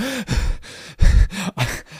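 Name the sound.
imitated out-of-breath panting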